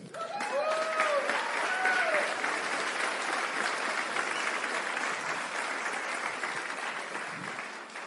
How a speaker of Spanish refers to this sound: ¿Está clara la reflexión? Ok. Un aplauso para ustedes.